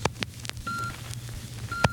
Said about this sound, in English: Now you'll hear a different kind of sound, the sound of time in its flight. The electrical impulse that produced that steady beep, beep, beep had its origin in the famed observatory of the Elgin Watch Company